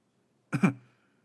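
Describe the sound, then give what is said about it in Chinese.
A short throat-clearing cough in two quick bursts, a voiced hem-hem with a low rasp, heard alone against silence and fading within half a second. “咳嗽一下。”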